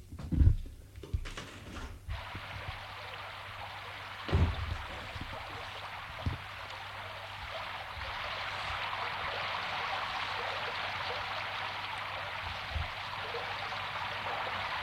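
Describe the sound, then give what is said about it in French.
A steady, dense hiss of heavy rain pours down without a break, with a few dull low thumps scattered through it and no voices. “Il pleut beaucoup”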